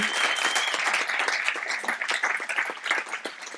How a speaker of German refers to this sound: Dürft klatschen.